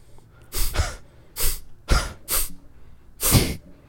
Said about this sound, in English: I want to try that now. I don't know how to do that. Just like blow your nose.